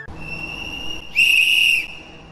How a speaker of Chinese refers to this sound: 七号深夜，西安火车站的站台上寒意浓浓，电子时钟的数字慢慢跳过二十三点。值班员急促的哨声催着旅客们抓紧上车。